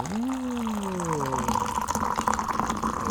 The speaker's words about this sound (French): Tout d'abord, un petit bruit de versement de thé à la rose. Pas si on entendra, mais.